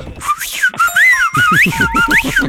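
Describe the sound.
A person whistles a loud, warbling tune of rising and falling swoops in a teasing, mocking Calabrian style, with a low voice or laughter murmuring underneath toward the end.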